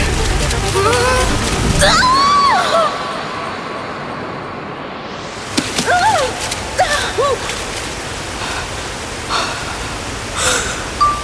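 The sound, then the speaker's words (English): A waterfall gives a steady, loud rush of falling water that roars continuously throughout, with brief whistling, chirp-like tones rising and falling over the noise at a few points. “Of course I have to jump a cliff past a waterfall!”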